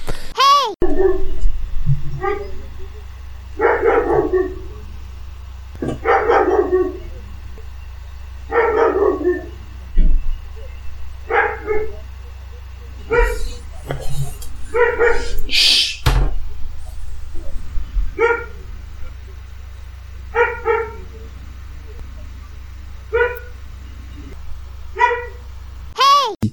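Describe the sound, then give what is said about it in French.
A dog barks repeatedly in short, loud bursts, with a steady low hum underneath and a few sharp yips mixed in. “voilà, merci le retour du chien, pour, voilà, le, qui, applaudit genre Ah oui”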